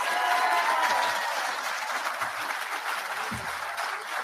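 An audience breaks into sustained applause, a dense wash of many hands clapping at steady loudness for several seconds with no voices standing out.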